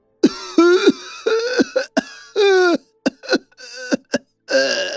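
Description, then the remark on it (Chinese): An elderly, ill man coughs again and again from behind a half-closed door, in rough, raspy bursts, some harsh and strained, others shorter and weaker, with brief pauses between fits and no talking. “一道年迈的咳嗽声从虚掩的房门里传了出来，咳了一声，似是给他开了头一般，接下来此起彼伏的咳着。”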